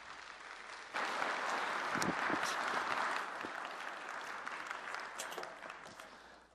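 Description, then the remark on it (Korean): A church audience breaks into warm welcoming applause for a pastor coming forward to preach, a dense steady clatter of many hands clapping that swells suddenly after a second and then slowly tapers off. “우리 나오실 때 크게 환영의 박수로 맞이해 주시면 감사하겠습니다.”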